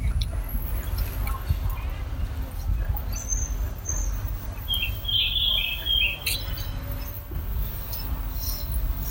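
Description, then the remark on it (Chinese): Birds chirp on a tree-lined street at dusk around school dismissal time, recorded while walking home: short, high, bright twitters come in a few scattered bursts above a steady, heavy low rumble of traffic, street noise and vendors' calls. “但是刚好是放学的时间，街道两边树影斑驳，鸟叫声非常清脆，然后不断有叫卖声传来。”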